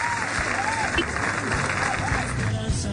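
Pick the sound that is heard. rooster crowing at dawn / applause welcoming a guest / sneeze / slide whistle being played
applause welcoming a guest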